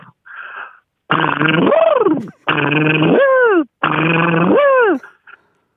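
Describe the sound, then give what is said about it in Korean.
At a car repair shop, a voice imitates a pneumatic impact wrench loosening and then tightening tire lug nuts on a car with a flat tire: three long, loud, buzzing whirrs, each ending in a falling whine, after a brief short vocal sound. “자동차 정비소에서 나 타이어 나사 푸는 소리랑 예, 잠그는 예, 소리까지.”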